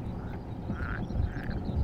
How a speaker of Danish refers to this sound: Det er ikke den. Nej, det er den grønne frø. Ja, det er den grønne frø. Den synes jeg godt, jeg kunne kende ja. fra Mols.